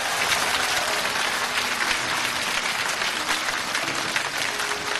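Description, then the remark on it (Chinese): An audience applauds steadily for the whole stretch, a dense, even wash of many hands clapping at once with no voices breaking through. “他说我是成功中的成功，对不对？请鼓掌。”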